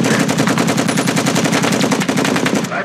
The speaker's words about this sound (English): I love me a Tommy gun. Love me the yeah. sound of it.